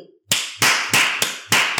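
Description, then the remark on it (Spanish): Five sharp hand claps ring out in a steady, evenly spaced rhythm, loud and close, each with a short bright decay and no voices in between. “No puedo más que aplaudir.”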